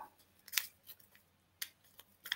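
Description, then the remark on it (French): Quiet paper handling: a folded sheet of paper with a written question inside is opened with two sharp, crisp crackles and a few softer rustles in between, with no voices. “Voilà, vous mettez ce que vous voulez sur les quatre papiers que vous repliez. Vous voyez, si j'ouvre le mien comme j'ai fait tout à l'heure”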